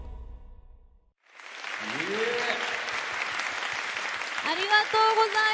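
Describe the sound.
Loud, sustained crowd applause for students after their dance performance swells in after a brief low rumble and continues steadily, with scattered cheers and voices calling out over the clapping.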